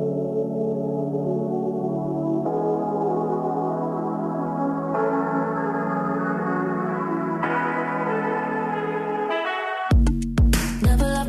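A recorded song plays with no one talking: slow, sustained bell-like chords that shift every couple of seconds, then sharp, punchy percussive hits break in near the end.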